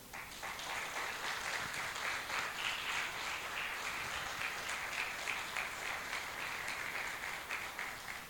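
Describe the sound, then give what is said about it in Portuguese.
An audience applauds for the Lord steadily for about eight seconds, a dense, sustained wash of many hands clapping at even loudness, with no one speaking over it. “Quero um aplauso para o Senhor.”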